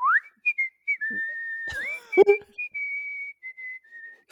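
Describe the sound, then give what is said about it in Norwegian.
A person whistles a bright, catchy tune from a Coop Joker supermarket advertisement, with sustained and gliding notes, clear, with a brief clatter of noise partway through. “Vakkert eh, plystre.”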